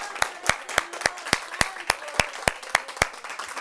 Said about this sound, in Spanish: Así, así como esas palmas, así como esas palmas que dieron ahorita, que ni siquiera las querían dejar de dar, porque yo les dije que las dieran como que si fuera la última vez que ya no van a tener más oportunidad de darle palmas a Dios y las dieron